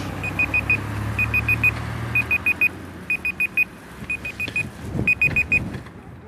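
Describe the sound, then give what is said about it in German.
Loud, rapid electronic beeping from a mobile phone, sounding in repeated bursts of about four quick high beeps each, over a low hum of background noise. “Oh, das piept aber laut.”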